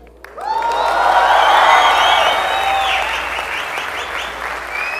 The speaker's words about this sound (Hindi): जिसके भी एक्सपीरियंस पर सबसे ज़्यादा हुटिंग होगी और सबसे ज़्यादा तालियां बजेंगी वो विनर होगा आज के इस कॉन्टेस्ट का